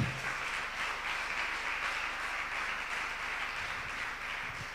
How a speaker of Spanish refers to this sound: ¿Cuántos lo creen y aplauden fuerte?